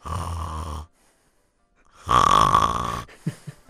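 Soft snoring, two drawn-out breaths a moment apart with a quiet pause between, close and steady, followed by a few faint murmurs.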